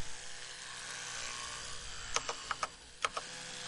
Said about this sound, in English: All you hear is typing. That's all. That's all you hear.